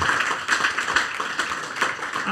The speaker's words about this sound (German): Also äh, ich würde mal sagen, an der Stelle Applaus